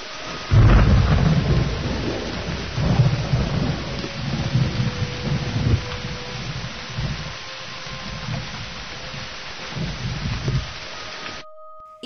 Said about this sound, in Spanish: Afuera en el mundo de los monstruos también llovía.